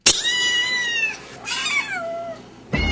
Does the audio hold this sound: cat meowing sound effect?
yes